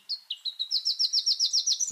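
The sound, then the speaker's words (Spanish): A black-crested warbler sings a quick, high trill of about a dozen short, evenly spaced notes that rise slightly in pitch, clear and unaccompanied by any voices; a recording from the Colombian Bird Sound Bank compiled by the Humboldt Institute and Cornell University. “El trino del arañero cabecinegro forma parte del Banco de Sonidos de Aves Colombianas recopilado por el Instituto von Humboldt y la Universidad de Cornell.”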